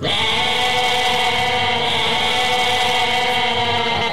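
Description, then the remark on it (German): A loud, dense chorus of 26 goats bleating nonstop, many overlapping voices forming a continuous wavering din with no pauses and no talking. “Es sind 26 Geissen.”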